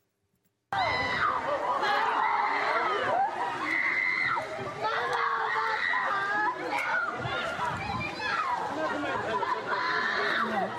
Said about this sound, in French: près de, près de Metz, en Moselle, il y a eu cet appartement incendié, scène dramatique. Oui, les deux parents d'une famille se sont mm. retrouvés bloqués à l'intérieur de cet appartement et vous allez voir qu'on entend leurs enfants crier.